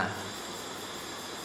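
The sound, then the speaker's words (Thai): A steady, dense insect drone of cicadas buzzing outdoors, holding an even level throughout with no pauses or voices, moderately faint. “นี่เสียงจักรจันทร์เดี๋ยวเสียงไก่ขัน เสียงทั้งสามเสียงนี่เหมือนกันไหมเนี่ย”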